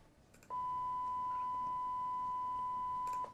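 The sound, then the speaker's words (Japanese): A single low-pitched pure tone, an example of a low sound illustrating pitch, switches on abruptly and holds perfectly steady and loud for nearly three seconds before cutting off, with no voices or other sounds alongside it. “えっと、例えば、えっと、低い音であれば、”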